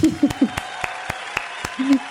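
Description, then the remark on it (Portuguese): A slow, steady run of about eight sharp hand claps, evenly spaced, with brief voiced murmurs from a person at the start and near the end. “Aplausos, hein?”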